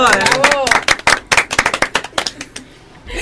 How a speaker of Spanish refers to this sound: Gracias, aplauso.